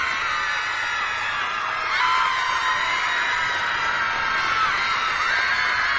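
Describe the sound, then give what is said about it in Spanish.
A large crowd of concert fans, weeping and yelling with excitement, screams and cheers without pause, a dense, high-pitched roar of shrieking voices that stays loud and steady, swelling slightly partway through. “para deleite de sus fans, que lloran y se desgañitan de emoción.”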